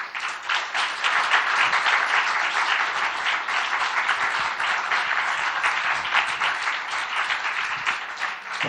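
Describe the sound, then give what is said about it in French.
A crowd at an evening event applauds steadily for several seconds to welcome two guests, a dense wash of many hands clapping at once, fairly loud, with no speech over it. “j'accueille tout de suite avec vous, et faites du bruit parce qu'on devait être archi plein ce soir,”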